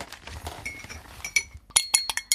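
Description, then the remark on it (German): A spoon stirs about three-quarters of a teaspoon of citric acid into 50 milliliters of water in a glass, first with soft scraping swirls, then a quick run of bright, high-pitched clinks as it taps the sides in a steady rhythm. “Dazu nehmen wir 50 Milliliter Wasser und rühren da, wie gesagt, ungefähr ein Dreiviertel Teelöffel Zitronensäure ein.”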